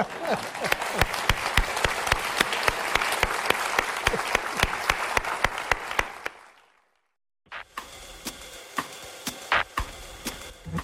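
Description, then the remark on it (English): A crowd applauds loudly with dense, steady clapping for about six seconds, giving a big hand to those who asked the questions and thanking Harold Holzer, then fades to silence before a quieter round of scattered claps resumes. “And I want you to give them a big hand.”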